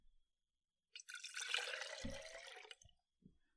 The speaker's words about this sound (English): Is that the sound of pouring water into a glass? Yep, it sure is.